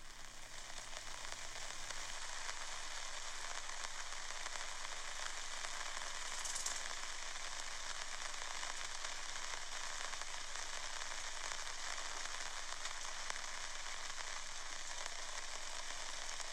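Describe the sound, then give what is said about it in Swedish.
Rain patters steadily on a large golf umbrella overhead as someone walks in the rain in a schoolyard, a dense, crackling drumming that stays even throughout, with no voices. “Jag har ett väldigt stort golfparaply när jag spankulerar i regnet på skolgården.”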